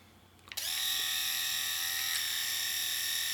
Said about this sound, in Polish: A teraz trymer do stylizacji bokobrotów i wąsów.